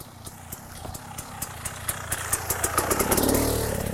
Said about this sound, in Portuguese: Oh, oh. Vem lá uma mota.